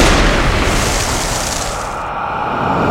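A loud, booming blast fills the whole moment, its harsh roar rolling on and only slowly thinning out, like a heavy gunshot echoing with a long tail. No voices are heard.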